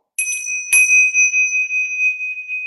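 A bright bell is struck twice in quick succession, then rings on with a steady, slightly wavering tone that holds clear and close, with no voices around it.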